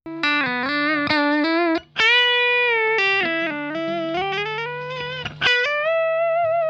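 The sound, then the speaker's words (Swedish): A distorted electric guitar plays a loud, sustained melodic line of gliding notes through an effects pedal that raises the hiss considerably, with a steady hum and noticeable hiss running underneath. “Här hör man också hur den lyfter ut, upp eh, bruset ganska ja, mycket.”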